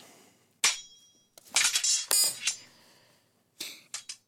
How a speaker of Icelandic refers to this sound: Uh, þetta er svona skilmingaljóð. Uh mhm. -huh. Þegar það er verið að skilma og það er svona sverð. Nákvæmlega sverð að skilmast